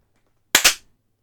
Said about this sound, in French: J'ai entendu que deux claps. Moi aussi. Il y en a un qui a pas clapé. Ah, faut clapper,